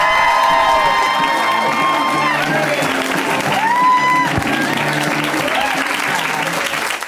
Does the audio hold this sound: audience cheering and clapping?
yes